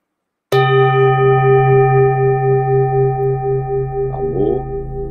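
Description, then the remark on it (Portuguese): A Tibetan bell, used as a healing sound for a breathing meditation, is struck once and rings on loud, its steady metallic tone sustaining with a slow, pulsing waver as it fades only slightly. “Então agora você vai inspirar o som desse som do sino tibetano com som de cura.”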